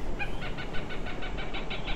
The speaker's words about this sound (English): Um, but I think for you guys, I'll just insert a clip of the Cooper's Hawks call in post production, uh. unless we stumble across one at its nest right now.